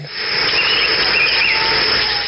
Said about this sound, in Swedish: det är aldrig tyst i en djungel.